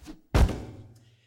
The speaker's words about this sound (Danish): Pigen rækker det lille menneske frem, men i det samme far et projektil gennem luften. Det rammer fuglen, der falder til jorden.